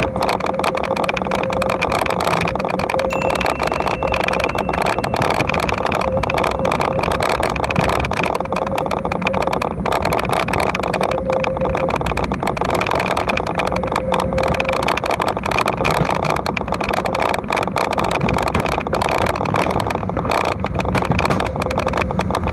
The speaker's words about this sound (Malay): Okay, bunyi motor eh. Awal dia kita ni kuat betul bunyi enjin dia.